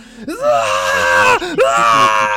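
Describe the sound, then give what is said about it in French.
A voice imitates a wounded man, struck in the chest by a blade and fallen to the ground, screaming in pain: two loud, strained, drawn-out howls, the second following a brief catch of breath. “Et il, réagit comme ça et il commence à hurler de douleur.”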